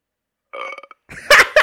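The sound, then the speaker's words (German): A short recorded burp plays as a WhatsApp notification tone on a phone, a brief voiced gurgle followed by a louder, rougher belch, heard alone with no talking. “der hat sich tatsächlich diesen Röpser genommen und hat den sich als äh, ähm, WhatsApp-Ton für mich.”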